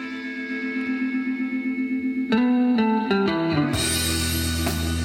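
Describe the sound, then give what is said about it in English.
A band's song plays from Spotify: a sustained, echoing guitar-like tone pulses steadily, then a run of descending notes leads into a loud, washy, distorted swell. No voices are heard. “Maybe that's a more recent song after the estrogen.”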